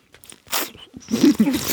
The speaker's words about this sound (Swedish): Ja, men, ja, men jag dricker lite vatten.